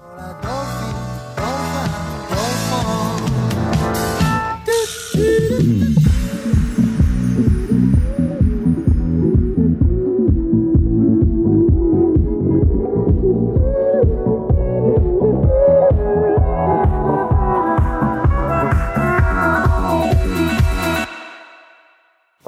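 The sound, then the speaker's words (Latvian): Music played through a water radio effect, as dolphins might hear it underwater: muffled, with a steady throbbing pulse, dull and boomy, playing continuously for about twenty seconds before cutting off. No one speaks. “Labi, paklausīsimies, kā delfīni varētu dzirdēt mūziku zem ūdens.”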